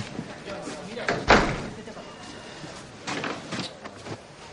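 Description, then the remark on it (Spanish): An office door is shut with a single sharp, solid thud, standing out above a low murmur of voices and background noise. “Steve cierra la puerta.”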